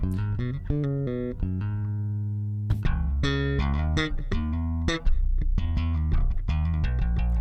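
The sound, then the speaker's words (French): A fingerstyle Marcus Miller electric bass played through a Karl Martin Onicomp compressor pedal: a busy line of plucked low notes at an even, squeezed level, with one longer held note partway through and no talking. “On entend bien les doigts là.”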